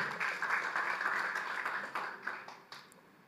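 A crowd claps for Jesus together in a dense, steady wash of applause that thins out toward the end, leaving a few scattered final claps.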